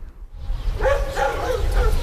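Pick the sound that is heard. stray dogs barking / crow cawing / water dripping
stray dogs barking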